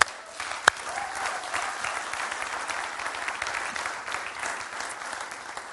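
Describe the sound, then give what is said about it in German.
A church audience breaks into steady, sustained applause for its Dream Team volunteers, a dense wash of clapping that holds at an even level for several seconds, with one sharp louder clap standing out near the start. “Ihr könnt ihnen mal einen ganz, ganz dicken Applaus geben.”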